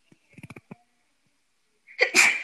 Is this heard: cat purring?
no